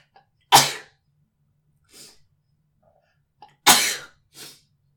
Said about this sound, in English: pardon me, I have to sneeze.